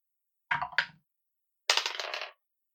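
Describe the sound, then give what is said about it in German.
Dice clatter across a hard tabletop in two separate rolls for initiative in a tabletop role-playing game: a short double rattle first, then a longer, bright tumbling skitter after a brief pause, with no voices. “Ich würde sagen, wir würfeln mal eine Initiative.”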